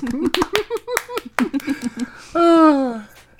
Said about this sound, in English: Great job. Great clapping, everyone. round, of, round of applause for us.